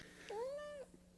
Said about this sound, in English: Oh, we have a guest star cat here.